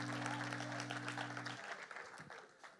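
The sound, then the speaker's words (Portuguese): A crowd applauds the band and singers steadily, dense clapping filling the space, while a sustained low instrumental tone rings underneath for the first half before fading, leaving the applause to taper off. “Uma salva de palmas a eles e aos cantores também.”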